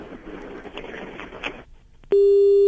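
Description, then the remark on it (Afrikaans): A caller's muffled, noisy telephone line to a radio programme goes quiet when the whole line is switched off. Then a loud, steady, low-pitched telephone busy tone abruptly starts and holds to the end. “Andries het nou sommer die hele lyn afgeskakel.”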